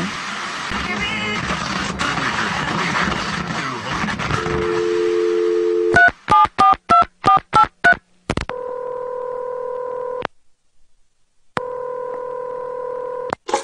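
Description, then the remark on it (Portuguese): A quick run of about eight electronic keypad tones beeps out a phone number, followed by two long steady ringback tones with a pause between, all clear over faint background noise. “Não, eu te liguei, Juba, pra ah. te perguntar.”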